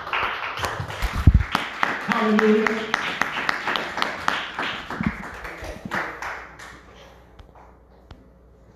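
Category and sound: crowd, audience clapping hands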